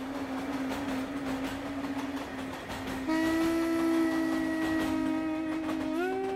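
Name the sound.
train travelling on rails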